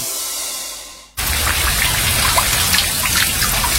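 hand shower spraying water

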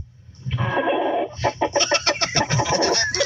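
rooster crowing

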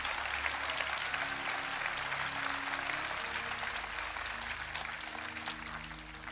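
audience applauding

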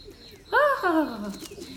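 pigeons cooing

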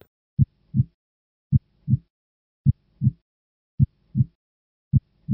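heartbeat sound effect

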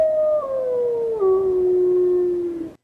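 wolf howling

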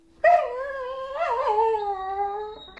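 dog howling and whimpering

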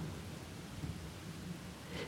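loud thunderclap

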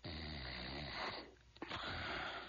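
man snoring

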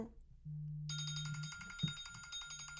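smartphone ringing

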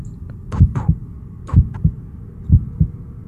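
heartbeat sound effect

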